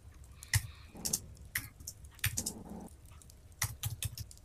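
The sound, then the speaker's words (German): Someone typing notes on a keyboard: scattered, irregular key clicks in small bursts, moderately loud, with soft rustling noise between them and no voices. “ich höre, der Cem, der schreibt schon fleißig mit”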